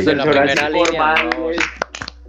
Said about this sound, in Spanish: Y, propongo repetir el aplauso para todos los que están luchando contra el corona, los doctores, eso, eso,